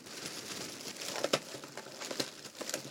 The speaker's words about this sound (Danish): Så kan man også høre, at jeg har købt en plastikpose.